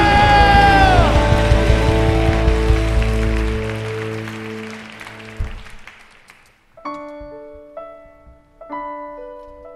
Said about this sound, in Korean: 결단하시고 선포하고 싶으신 만큼 우리 주님께 영광과 감사의 박수 올려드립시다 할렐루야